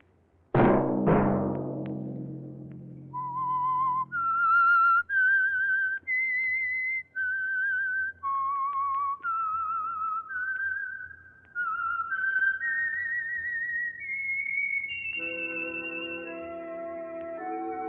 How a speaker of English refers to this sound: Let that whistle be your signal for the Signal Oil program, The Whistler, each Sunday night at the same time.